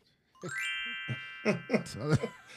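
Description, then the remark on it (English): A sparkly, magical pixie-dust chime sound effect rises in a quick shimmer, then its bright tones ring on steadily while people talk over it, the twinkling sustain lingering under their voices. “Who, where is this magic pixie dust sound coming from?”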